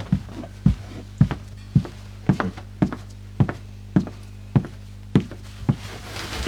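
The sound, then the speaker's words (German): Steady footsteps, about a dozen thudding steps at an even walking pace, crossing from a wooden floor onto carpet in a living room, with no voices. “Ich muss halt nicht absetzen zwischen Holzboden und Teppich dann irgendwie mhm. nochmal einsteigen, sondern.”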